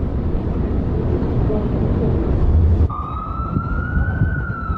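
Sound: emergency vehicle siren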